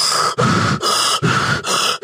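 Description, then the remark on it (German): A voice imitates the heavy, out-of-breath panting of someone arriving in a rush: five loud, rapid breaths alternating between in and out with short gaps, with no talking. “Und 30 Sekunden bevor wir abfahren, kommt jemand hergestresst, so schnaufend, so.”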